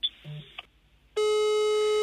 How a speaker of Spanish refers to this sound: Ok, estamos llamando a alguien que admiramos muchísimo, pero al parecer... Al terminar los tonos